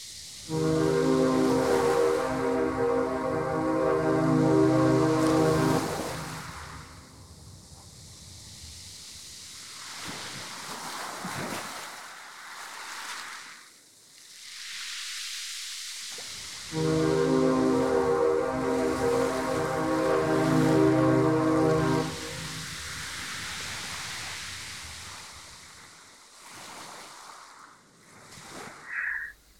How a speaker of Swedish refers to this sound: Och mistluren hörs två ganska hotfulla mistlurstutor.